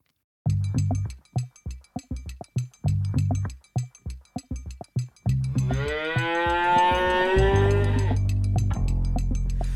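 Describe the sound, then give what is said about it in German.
A short intro jingle: a punchy rhythmic beat plays for several seconds, then a loud, drawn-out cow moo rises over a sustained low tone that carries on to the end. “Ähm, ich habe den Podcast Medienkuh gehört äh, und würde sagen, wir spielen erstmal den Einspieler dafür ab.”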